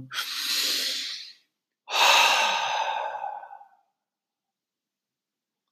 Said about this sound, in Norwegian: For de som ikke veit hvilken type de er, så kan du gjøre sånn som jeg gjør nå, at du, du puster ut, og så